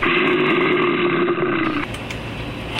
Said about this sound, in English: So far, I haven't had any feedback either way about the bear's growl. So, write and let me know if you think I should move it from the first of the show to the last.